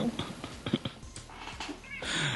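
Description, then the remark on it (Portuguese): A female domestic cat meows softly toward the end, after a stretch of quiet rustling and small clicks. The sound is faint and brief, with no talking. “Ah, nossa, veio até minha gata participar da propaganda.”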